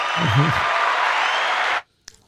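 A burst of audience applause, dense and steady for nearly two seconds, with a brief voice at the start, then it cuts off abruptly, followed by a faint click.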